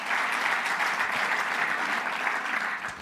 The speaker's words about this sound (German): Halleluja, das ist ein Applaus, oder? Yes! Ihr seid Helden!